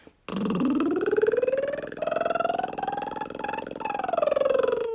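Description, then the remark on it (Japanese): A voiced lip trill (lip roll) done as a voice training exercise, the lips buzzing in a steady flutter as the pitch slides upward, wavers through a few steps, then glides back down. Loud and continuous, with no talking. “唇をうーってやって震わせながら音を出すんですね。”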